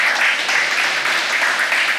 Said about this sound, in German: Erstmal einen donnernden Applaus.